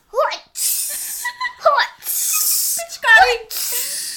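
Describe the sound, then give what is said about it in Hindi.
A voice mimics the hiss of a water-gun spray: three long, breathy shushing bursts, alternating with short vocal chirps and squeaks, fairly loud. It imitates the people of Kadkadganj spraying serum with water guns. “serum से तो जैसे ही कड़कड़गंज के लोग ये पिचकारी से कर रहे”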